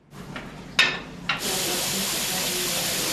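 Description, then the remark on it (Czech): A couple of sharp knocks, then a steady, loud rush of water gushing from a pipe as staff at the Liberty plant drain water from the pipes because of approaching frosts, a constant hissing flow that continues to the end with no talking. “Dnes například kvůli blížícím se mrazům vypouštějí vodu z potrubí.”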